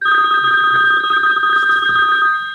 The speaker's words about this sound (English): Hey, we got a caller. Answer that phone.